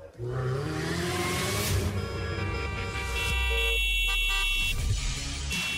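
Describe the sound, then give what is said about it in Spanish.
Several car horns honk loudly, overlapping in long sustained blasts of different pitches, with a low engine and traffic rumble underneath throughout. “El claxon en auto es solo para una emergencia, no para faltar al respeto a los demás.”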